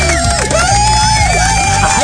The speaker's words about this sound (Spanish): Un, este, un aplauso, por favor.